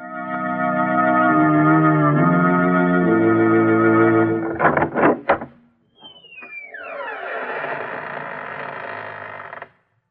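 A long, drawn-out, loud creaking of a door slowly opening, the creaking door of the Inner Sanctum Mysteries horror and suspense anthology series, wavering in pitch, broken by a few clunks, then a second sliding groan that trails off. No voices.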